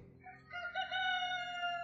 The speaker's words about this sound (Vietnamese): Mới sáng ra gà chưa kịp tắt gáy